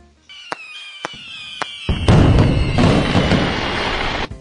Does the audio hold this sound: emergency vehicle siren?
no